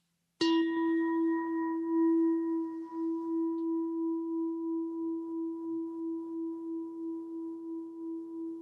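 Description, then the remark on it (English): A small gong is struck once to begin a three-breath meditation. It gives a bright metallic attack, then its clear, steady tone rings on and slowly fades over several seconds, alone in a quiet space. “It's a beautiful little gong. So I'll hit this gong once and we'll do a three breaths meditation.”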